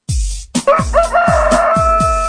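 A loud, close rooster crows in one long drawn-out call, set over a steady thumping beat that pulses about twice a second.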